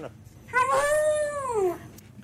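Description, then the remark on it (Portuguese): A single drawn-out dog howl, about a second long, that rises and then slides down in pitch with a voice-like quality, like an old English lady saying hello. “um cão que diz hello”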